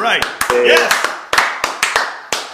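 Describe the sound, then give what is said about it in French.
A handful of scattered, irregular hand claps, sharp and fairly loud, about a dozen over a couple of seconds, with voices talking and laughing underneath. “Euh, je comprends que c'est la canicule, mais il n'y a pas eu d'applaudissements, rien.”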